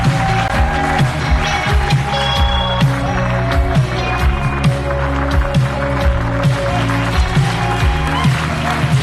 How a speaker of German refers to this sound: Aber lasst uns jetzt begrüßen mit einem fetten Applaus